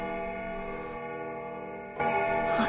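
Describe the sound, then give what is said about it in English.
A clock striking thirteen rings with resonant, sustained bell tones, one stroke fading slowly before a second, brighter stroke sounds near the end; fairly loud, with no voices. “The clock has just struck thirteen.”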